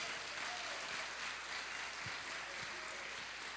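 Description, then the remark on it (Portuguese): A church audience applauds Jesus in a steady, dense wash of clapping that holds at an even level throughout, with a few faint low thumps underneath and no voices standing out. “Vamos aplaudir Jesus.”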